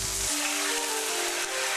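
Meat is browned on each side in olive oil heated over medium heat in a stock pot, a dense, crackling hiss that holds at an even level throughout, with a faint low hum underneath and no voices.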